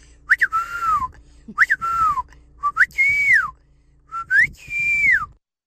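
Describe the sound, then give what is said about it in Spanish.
A person whistles their Mexican family's call four times in a row, each phrase a quick rising chirp followed by a longer sliding tone, clear with brief pauses between repetitions. “¿cuál es el silbido que tienes en tu familia, papuchón?”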